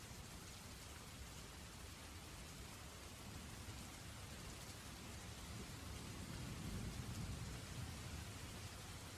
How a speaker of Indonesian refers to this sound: Setelah menempuh perjalanan selama hampir satu jam, area di dalam hutan cukup membuat pandangan mata terbatas dan sore menjelang malam, hujan dan petir disertai angin kencang semakin lebat dan mulai banjir di jalanan.